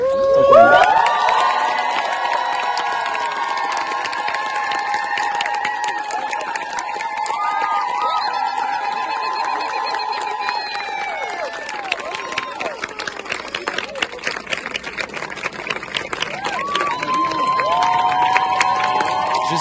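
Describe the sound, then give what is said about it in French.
A large crowd cheers and shouts continuously, a dense roar of many voices with high whoops rising above, staying loud throughout and surging again near the end. “on n'entend pas très bien dans ces petites enceintes-là, le bruit était incroyable euh, que les gens ont fait.”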